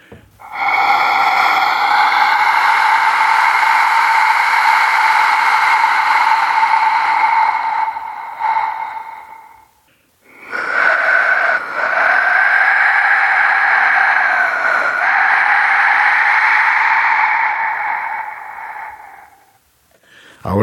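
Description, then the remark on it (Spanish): A clay death whistle, an inner sphere with a small hole fed by an angled clay tube, is blown in two long, loud blasts, each about ten seconds of harsh, wind-like screaming that wavers slightly before cutting off, with no talking. “El silbato de la muerte, bueno, es una esfera interna con un pequeño orificio y luego un tubito de barro que entra de manera angulada y hace que el aire circule por esta esfera,”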